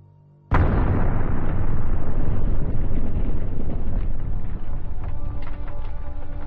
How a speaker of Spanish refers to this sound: A las 3 y 46 de la tarde del 12 de marzo, las cámaras recogen una enorme explosión que destroza la cúpula del edificio del reactor número 1, hiriendo de gravedad a cuatro trabajadores.